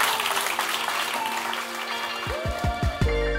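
A crowd claps steadily in a dense, even wash of applause; partway through, a short musical jingle with pitched, gliding notes starts over the fading clapping.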